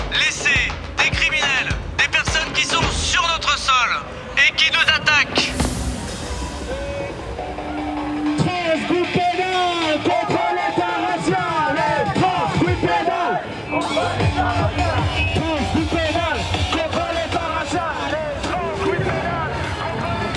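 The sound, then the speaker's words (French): A dense, steady crowd din at a street protest march in Paris as the procession sets off from Place du Trocadéro a little after 3 pm. Many overlapping voices are heard, with shouts and calls rising out of the murmur. The din stays loud throughout, with someone speaking briefly at the start. “faisant quelques pas et en traversant la scène, on arrive dans la manifestation”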